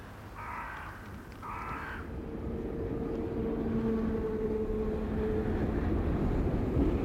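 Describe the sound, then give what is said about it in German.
Outdoor ambience at the train station in Vorheim: two crow caws at the start, then a steady low rumble and humming tones of a train that grow slightly louder. No one speaks. “Sodala, ich bin am Bahnhof in Vorheim eingekommen”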